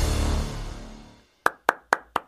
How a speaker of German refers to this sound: Wieso klatschst du jetzt? Zum Dir und der Claude Riedlich Chats zu applaudieren.